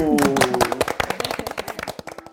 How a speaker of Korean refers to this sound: 여러분의 올 한 해의 밀도 있는 시간 속에 저희가 함께 할 수 있도록 저희 많이 응원해 주시고 많은 참여해 주십사 하는 부탁드리면서 2019년 첫 방송 본격적으로 시작하겠습니다. 박수.